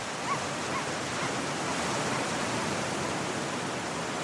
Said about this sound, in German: Die zarten Wogen werden immer harscher. Die offene See begrüßt uns mit all ihrer Kraft. Die energischen Wellen führen uns hinaus auf das offene Meer.